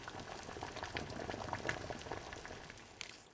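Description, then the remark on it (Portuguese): Coarse salt pours into a pot of boiling water for cooking pasta, a dense, steady crackling and fizzing hiss with bubbling underneath, continuous for a few seconds with no voices. “Eu salgo geralmente com sal grosso, mas pode ser sal fino. Então vamos salgar a nossa água.”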